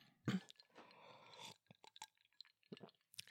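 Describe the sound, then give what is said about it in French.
A sip of rum and coke: a quick knock of the glass, a soft slurping pull of liquid lasting about a second, then quiet swallows and small wet clicks. “Après une bonne gorgée euh, de Roman coke, je serai prête.”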